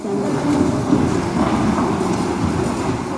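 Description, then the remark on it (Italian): Metal shackle chains on a prisoner's wrists, ankles and waist clank and rattle steadily in a courtroom in Budapest, Hungary, with faint squeaking mixed into a dense, continuous jangle that stays fairly loud throughout, with no voices. “Il cigolio e i suoni metallici che sentite ora sono quelli delle catene ai polsi, ai piedi e alla vita”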